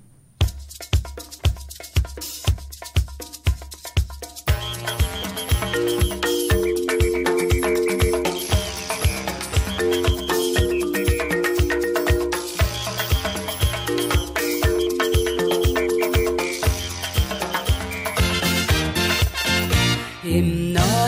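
Instrumental intro of a pop song: a steady, punchy drum beat plays alone for a few seconds, then a full band enters with bright melodic lines over a driving rhythm, with no singing yet.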